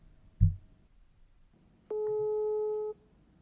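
A single steady telephone ringing tone, about one second long, sounds clearly on an outgoing call after a soft thump, then stops into near silence.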